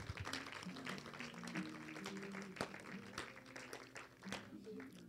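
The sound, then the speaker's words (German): A crowd claps together in a steady, dense patter, applauding the people concerned at a Christian prayer gathering, with sustained musical or hummed tones of the continuing music underneath throughout. “Lasst uns einfach mal den Leuten, die es betrifft, einen Applaus geben.”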